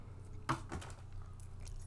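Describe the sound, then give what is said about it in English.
A single sharp metallic clatter of keys dropped onto a computer keyboard, followed by a brief lighter rattle, against a low steady background hum. No one speaks. “Oh, I sorry, I dropped my keys on my keyboard.”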